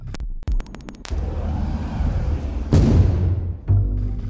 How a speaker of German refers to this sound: Er versucht, sie mit einem selbstgebauten Sprengsatz aufzusprengen. Das ist die Explosion, die Max Privorotsky und seine Gemeinde im Innern hören.